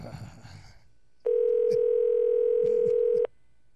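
A steady, mid-pitched telephone dial tone sounds for about two seconds while someone places a call, with faint voices murmuring underneath and brief noise before the tone starts.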